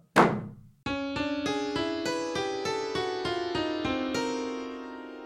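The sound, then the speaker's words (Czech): A short musical jingle: a dull thump, then a quick, evenly paced run of bright ringing notes stepping upward and sustaining into a held final chord, loud, with no voices. “Znělka.”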